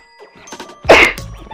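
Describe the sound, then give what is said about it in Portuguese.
A single sharp sneeze bursts out, preceded by a few short catching breaths and followed by a quieter trailing exhale. “Vou mandar espirrar.”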